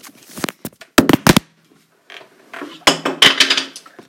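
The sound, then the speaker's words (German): An iPad drops with a sharp thud and brief clatter, and moments later a drawer flies out with a louder, rattling wooden-and-metal bang. Both impacts are loud, with no talking. “Okay, mein iPad ist runtergefallen. Der erste Knall, das zweite war eine Schublade, die rausgeflogen ist.”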